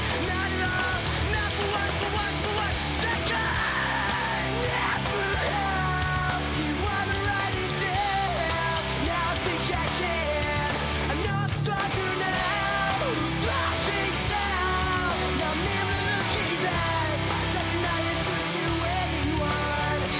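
A post-hardcore song from about 2002 with screamed vocals plays steadily at full volume, dense distorted guitars and driving drums filling the whole stretch without pause and no one talking over it.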